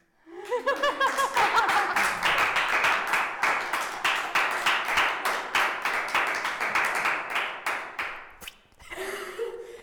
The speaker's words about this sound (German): Mega schön, mega schön. Da will jemand klatschen.